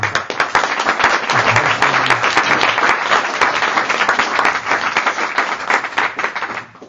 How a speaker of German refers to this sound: Der Applaus ist wahrhaft würdig und recht, weil die beiden sind, haben zwei ganz tolle Eigenschaften.